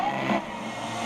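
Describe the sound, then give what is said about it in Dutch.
A brief burst of steady radio static heard between stations as the tuning knob is turned slowly to search for stations, a dense hiss with faint whistling tones drifting through it, loud and even for about a second with no voices. “Bij mijn radio moet je zoeken naar de zenders.”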